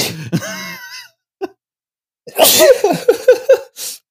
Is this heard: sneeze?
yes